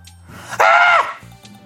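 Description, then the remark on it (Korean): A single short, loud startled scream over the phone, a high, strained cry lasting about half a second, performed by a voice imitating a panicked shriek, with quiet background before and after. A radio producer who overslept screams on seeing the clock when a colleague phones. “응, 비명을 질렀군요.”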